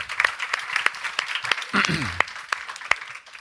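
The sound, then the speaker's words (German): A crowd applauds steadily for a few seconds, a dense, hissy wash of many hands with sharper individual claps popping out, and a brief voice sounds partway through. “Da gibt es jetzt gleich mal einen kleinen Super Krise, Applaus.”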